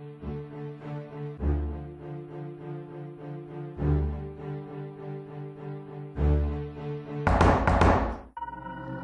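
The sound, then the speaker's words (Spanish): Heavy knocks thud on a door in a dark passageway at night, at slow, uneven intervals, four of them over a sustained, droning musical backdrop, followed by a brief rough scraping burst near the end. “no toques las puertas.”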